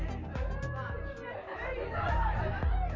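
Continuous chatter of a crowd at a party of university students, many overlapping voices blending into a steady, fairly loud hubbub, with no single speaker standing out.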